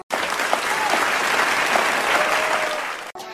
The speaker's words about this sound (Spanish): Aplausos para todos ellos.